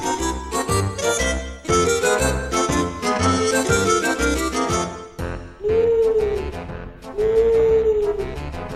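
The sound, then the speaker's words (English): Two drawn-out, low owl hoots ring out one after the other near the end, following several seconds of busy, dense music. “An owl hoots, hoo hoo, hoo hoo.”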